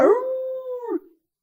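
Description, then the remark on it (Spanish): A single wolf howl from far away, a steady sustained tone lasting about a second before sliding down and fading out, heard alone with no voices. “¿Y qué pasa con la loba cuando de repente a lo lejos...”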